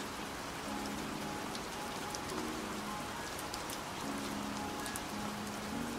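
Steady rain falls continuously at night, a dense patter of drops striking a surface, with faint low tones humming softly beneath the even hiss.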